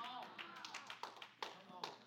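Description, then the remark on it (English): About six scattered, uneven hand claps from listeners during a sermon, sharp and moderately loud, popping out one by one over a low murmur of voices. “I only got about six claps with that one.”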